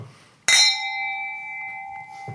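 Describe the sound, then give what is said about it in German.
Two wine glasses touch in a single bright clink during a toast, followed by a clear, pure ringing tone that lingers and slowly fades for nearly two seconds. “Zum Wohl. Zum Wohl.”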